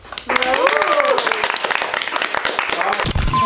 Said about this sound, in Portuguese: É, gente, então muito obrigada pela presença de vocês. Vamos bater palma, plateia.